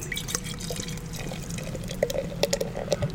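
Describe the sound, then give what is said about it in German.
Austrian Amber Vienna lager, from a bottle just opened, pours into a glass in a steady, fizzy rush, with a few brighter gurgling pops and splashes in the second half. No one speaks. “Und schenkt das dann mal ein.”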